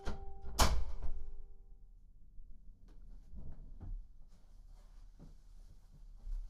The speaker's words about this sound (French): Je vais fermer la porte, on sera plus au calme.